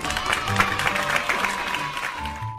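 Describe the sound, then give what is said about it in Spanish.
Classmates and a teacher applauding, with dense, steady clapping that holds at an even level for a couple of seconds before easing slightly at the end, with a faint humming tone beneath. “Sus compañeros de clase y la profesora se quedaron asombrados e incluso la aplaudieron.”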